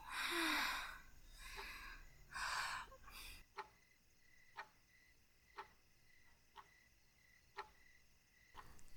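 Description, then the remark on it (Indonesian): Heavy, breathy gasps fade out, then the hands of a clock tick steadily about once per second, six crisp, distinct ticks against a quiet background, at first distant and then growing clearer. “Bunyi suara detak jarum jam kembali terdengar, mula-mula jauh, untuk kemudian makin lama makin terdengar jelas.”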